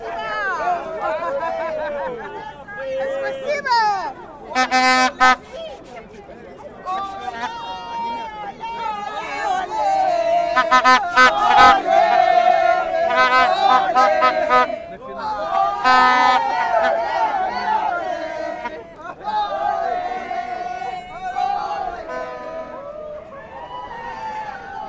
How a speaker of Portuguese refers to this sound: Agora estou vendo uma festa enorme, mas é um pessoal com a bandeira da África do Sul. Vamos lá ouvir a festa deles.